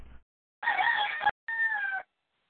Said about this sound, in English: As you hear, my French rooster will be screaming through the entire show because it is spring slash going on summer, and we have all the windows open and he's got a big mouth.